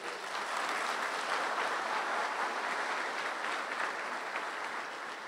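An audience claps steadily for about five seconds at a preacher's request during a sermon, a dense, even wash of many hands applauding, with no voices over it.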